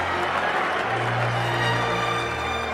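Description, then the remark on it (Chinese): A large crowd cheers and applauds at a celebration as two people appear on the raised platform at the front of the venue, in a steady, dense wash of clapping and shouting voices that holds at an even, loud level throughout, with no single voice standing out. “到了午后两点，当彭达福老先生和佩玲出现在庆祝会场正面的高台时，群众们便大声欢呼起来。”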